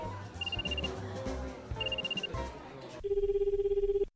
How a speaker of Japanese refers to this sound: 今携帯鳴ってなかった